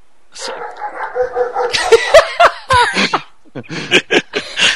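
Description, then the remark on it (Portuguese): A dog barks repeatedly in short, sharp bursts, loud and agitated, mixed with some laughter and scattered voices in the background. “Mano, foda-se, deixa o cachorro latir.”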